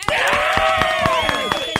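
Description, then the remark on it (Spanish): A crowd claps loudly and steadily while voices cheer and whoop over the applause, a dense burst of audience approval lasting a couple of seconds. “Fuerte el aplauso para Kiki.”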